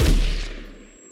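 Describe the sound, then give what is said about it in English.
A single loud musket boom, fired by a woman who steps out from behind a tree and aims, cracks out with a heavy low-end thump, then rolls away through a small valley in a fading rumble and echo, with no voices present. “And this huge tongue of fire comes out the end of it, and it's a huge boom that just goes ripping through our little valley.”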